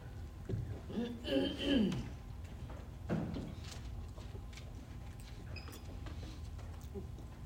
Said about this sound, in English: I'm going to close those doors.